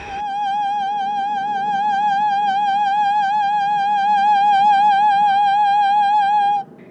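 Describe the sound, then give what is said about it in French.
A woman lets out one long, loud, high-pitched scream, held steadily for about six seconds with a slight wavering vibrato before cutting off abruptly. No talking accompanies it. “Oh, ça va être juste euh, un, cri.”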